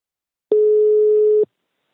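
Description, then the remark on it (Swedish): A single steady telephone ringback tone of an outgoing call to the caller's mother plays for about a second at a moderate level, then stops into silence. No voices are heard. “Nu ska vi ringa mamma och höra hur det har gått med cytostatikabehandlingen.”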